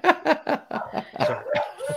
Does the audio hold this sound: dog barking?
yes